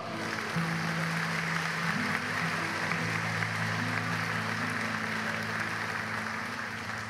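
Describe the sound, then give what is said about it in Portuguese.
An audience claps steadily for several seconds as applause to the Lord, a dense, even wash of applause, while low sustained keyboard notes hum underneath and shift pitch a few times. “Quantos pode dizer amém e dar um aplauso ao Senhor?”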